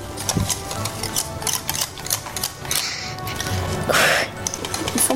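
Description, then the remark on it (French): Rapid whisking of a cream mixture into chocolate in a bowl to melt it: a steady, busy stream of clicking, scraping strokes that continue throughout at a fairly even rhythm, with no talking. “Et ça, on va mélanger avec un fouet. Il faut bien, bien mélanger.”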